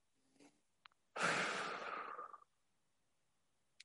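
A faint, short intake of breath is followed by one long, slow, airy exhale, breathing slowed and softened for relaxation, then quiet. No one speaks.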